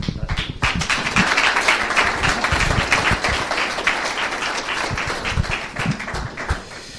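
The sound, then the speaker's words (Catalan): A crowd at a library applauds steadily for several seconds to welcome the secretary general of the Catalan Skating Federation, a dense rattle of many hands clapping at once that holds its level before tapering slightly at the end. “Fora aplaudiment.”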